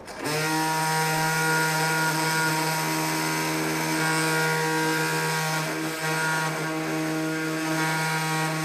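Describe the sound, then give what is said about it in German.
A robot-guided surgical bone saw cutting during knee surgery whines steadily and loudly, a sustained high-pitched buzzing drone that holds a constant pitch for the whole stretch with no talking over it. “So, und in dem Moment, wo ich jetzt da bin, da kann ich jetzt einfach lossägen und kann eigentlich nichts mehr falsch machen. Achtung, es wird jetzt ein bisschen laut.”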